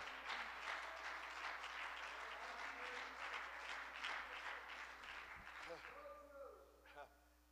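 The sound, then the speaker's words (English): A crowd claps steadily in a dense, sustained burst of applause that tapers off after about six seconds, leaving a few scattered claps and a brief vocal sound at the end. “Come on, clap your hands one more time.”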